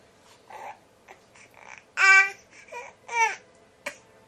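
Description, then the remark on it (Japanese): A baby babbles in a string of short, bright vocal bursts, with two louder, drawn-out squealing syllables near the middle and a quick sharp note at the end. “何か伝えたい何か伝えたい”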